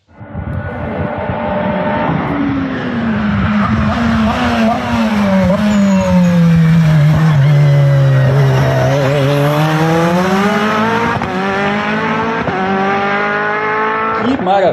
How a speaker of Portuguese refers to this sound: eu vou pedir um sobe-som desse Glickenhaus passando lá na reta de Monza para fazer a variante Ascari. Edição, sobe som pra gente.